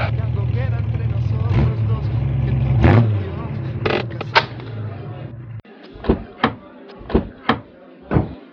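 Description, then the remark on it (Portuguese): A car engine rumbles low with a few clunks as it pulls into a parking space, then cuts off, followed by a run of sharp thuds as a couple get out and the doors open and shut. “casal sai do carro.”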